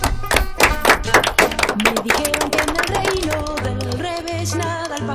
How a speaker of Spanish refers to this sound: Nos vamos a dar un aplauso